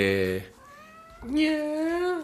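A female cat meows loudly, two drawn-out, rising-and-falling cries separated by a brief pause, with no other sounds around them.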